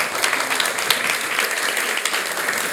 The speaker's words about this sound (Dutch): Ik eh, wil je gigantisch bedanken en een heel groot applaus.